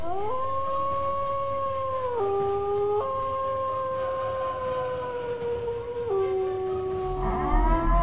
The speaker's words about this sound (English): let me get another wolf howl from everybody that's in the chat box, man. Let's go.